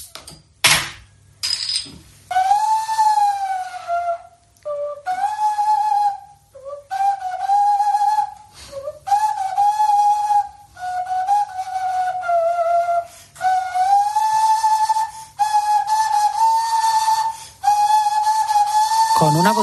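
A breathy, hollow tone blown across a bottle mouth by a shepherd plays a slow melody in a series of sustained phrases with short pauses between them, loud, with no talking.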